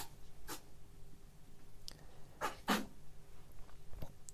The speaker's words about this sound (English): That's my invisible pretend ferret sneezing annoyingly.